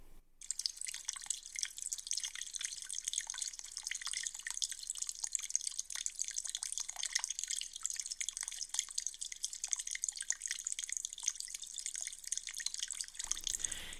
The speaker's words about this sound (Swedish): När berättelsen börjar är det vår och den sista snön är på väg bort. Det är något visst att höra det porlande smältvattnet och man riktigt känner hur isande kallt det är i skuggan och samtidigt varmt på läsidan i solen.